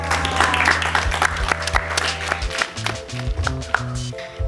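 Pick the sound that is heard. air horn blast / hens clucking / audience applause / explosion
audience applause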